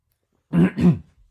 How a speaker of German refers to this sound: Musste ich mich mal kurz räuspern.